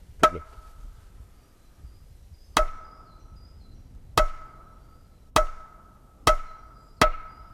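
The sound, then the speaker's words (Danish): A wooden mallet strikes a very thick wooden board six times, each knock sharp and resonant with a brief ringing tone, the blows coming gradually faster. Fairly loud, with no talking. “stor fest så, så, så du har en trækammer her, du slår på?”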